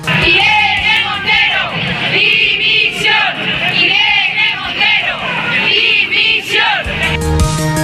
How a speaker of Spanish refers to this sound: Y en la otra manifestación convocada en la capital, la del movimiento feminista de Madrid, contrario a la ley trans porque dice borra a las mujeres y a la prostitución, se escucharon gritos pidiendo la dimisión de la ministra.